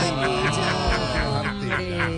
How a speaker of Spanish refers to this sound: Se metió un pájaro.